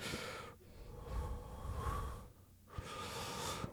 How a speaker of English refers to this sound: dude, I'm doing some deep breathing exercises.